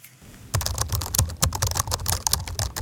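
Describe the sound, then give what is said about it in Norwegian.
Rapid, irregular clicking of fingers typing on a computer keyboard in an apartment in Oslo, fairly loud, starting after a brief quiet moment and continuing steadily with no one speaking. “sitter og skriver på dataen sin i leiligheten sin i Oslo.”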